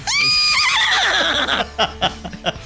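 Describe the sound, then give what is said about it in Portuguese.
A horse lets out a loud whinny that rises sharply, then shudders downward in a long quavering neigh, followed by a few short snorting breaths. “Iniciando este programa com as cornetas quase nada saudáveis e agora com um cavalinho.”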